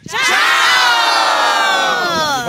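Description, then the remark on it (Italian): A crowd of children shout "Ciao!" together as a greeting after a countdown of 3, 2, 1, in one long, loud, sustained cry, their many high voices blending into a single enthusiastic group call that fills the whole moment. “E eh, quindi faremo questo saluto eh, tipo ciao, va bene? 3, 2, 1. Ciao!”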